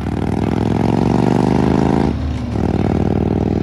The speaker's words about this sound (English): He had some real nice pipes on that old hog, and the sound would echo across into the window. It sounded like he was talking to us. The sound of freedom as he would get on it all the way down the highway.